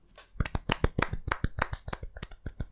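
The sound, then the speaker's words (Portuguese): A short burst of hand clapping as two hosts applaud themselves, quick, uneven sharp claps overlapping for a couple of seconds at a steady loudness, with no talking. “Foi bom, foi um bom aplauso.”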